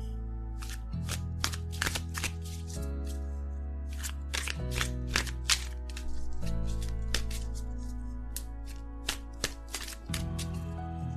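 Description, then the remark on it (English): A Hanson-Roberts tarot deck is shuffled before pulling a card, a steady run of crisp slaps and riffles over about eleven seconds, with soft sustained background music underneath and no talking. “So I'm going to shuffle and we'll see what card I get.”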